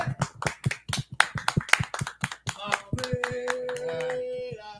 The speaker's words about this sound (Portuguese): Sensacional! Uma salva de palmas. Aê!